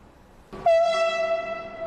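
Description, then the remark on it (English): A freight train horn, from the Shanghai Express freight train leaving Belvedere Terminal in Hamburg, Germany, for Shanghai early in the morning, sounds one loud, sustained blast with a brassy, steady pitch, starting after a brief low rumble and holding without a break. No one speaks. “The Shanghai Express freight train left Hamburg, Germany for Shanghai yesterday.”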